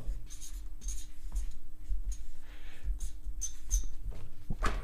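Scratching of a pen moving across paper in short, irregular strokes, with a steady low hum underneath and no one speaking.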